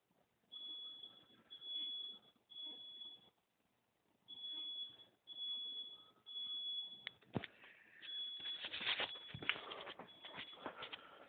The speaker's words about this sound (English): He done set off the alarm again